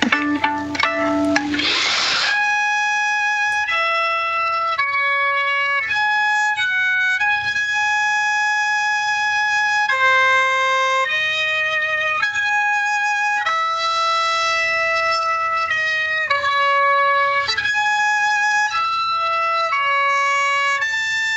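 A solo violin is played live: a steady melody of sustained, clearly pitched notes that step up and down, evenly loud throughout, after a brief scratchy, noisy start. No one talks over it.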